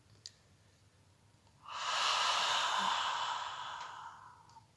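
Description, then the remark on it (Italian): A single long, slow breath of warm, humid air pushed out from the lungs through an open mouth after breathing in through the nostrils, a soft breathy whoosh that swells and fades over a few seconds, with no talking. “Inspiriamo attraverso le narici espiriamo appannando quell'immaginario vetro davanti a noi.”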